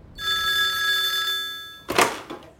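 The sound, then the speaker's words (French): A telephone at a union regional office rings with a bright, sustained electronic bell tone for over a second, then fades as a handset is picked up with a brief clatter and rustle; no one speaks. “t'as eu vraiment le bon réflexe là, d'appeler au bureau régional dès le premier refus”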